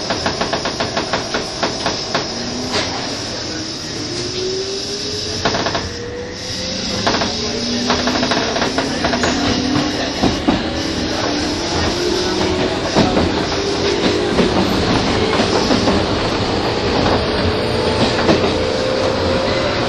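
A 201 series electric train on the Chuo Rapid service between Tokyo and Takao pulls away, its motor whine climbing slowly and steadily in pitch over a loud, continuous rumble, with irregular clicks and rhythmic wheel clatter throughout. No one speaks.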